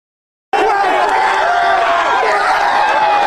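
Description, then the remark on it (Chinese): After a half-second of silence, a loud, dense roar of excited football fans cheering and shouting erupts and holds steady as Australia qualifies for the World Cup, with a reporter cheering into a microphone; overlapping yells and raised voices blend into a continuous crowd din. “得知澳洲打进了世界杯，正在连线报道的记者瞬间嗨翻，拿着麦克风高声欢呼，和在场兴奋的球迷抱成一团，又跳又叫。”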